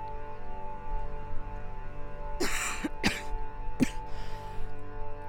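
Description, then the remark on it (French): A fit of coughing: about four short, harsh bursts in quick succession, one slightly drawn out, over a steady low hum with no talking. “Depuis hier, je tousse, mais euh, je pense que c'est juste de l'angoisse.”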